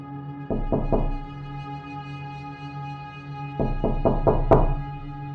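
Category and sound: household object, knocking on a door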